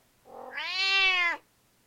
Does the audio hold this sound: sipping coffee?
no